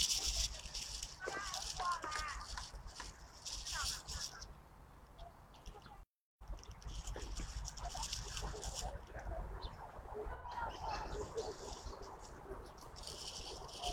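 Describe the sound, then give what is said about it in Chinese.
Eurasian blackbird calls at a small water source site that currently has no water, a steady run of sharp chirps and chatter over a constant rustling background hiss, briefly cutting out for a moment partway through. “这里面现在目前没有水，水好像还没有，听到的都是乌冬的叫声。”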